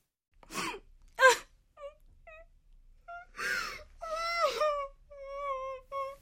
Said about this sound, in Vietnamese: Rồi một ngày nọ, có tiếng phụ nữ khóc trong phòng giám đốc.